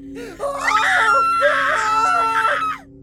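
Shrill, panicked screaming, loud and close, rising in three sustained bursts with brief breaks between them over a steady low hum.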